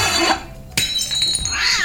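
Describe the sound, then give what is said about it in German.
Glass clinks and rattles with a bright, ringing edge as a cat walks among the dishes, then one sharp crash near the middle, followed by lingering tinkling shards. The sound is fairly loud, with no voices. “Wie ist denn das Glas da?”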